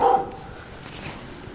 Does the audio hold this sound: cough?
no